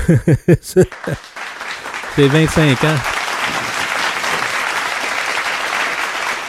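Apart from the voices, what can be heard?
applause sound effect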